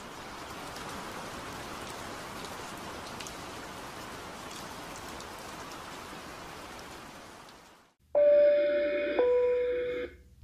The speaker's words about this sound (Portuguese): Terminada sua última palavra, o som de uma chuva mansa entrou pelo quarto. Era início da primavera.